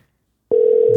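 After half a second of silence, a loud, steady telephone dial tone, heard while placing a call, switches on and holds without a break, with a faint murmur of other sound creeping in just at the end.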